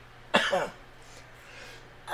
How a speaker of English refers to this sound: I tried to recover from my coughing fit in the middle of that, but I started coughing more because that was a good joke.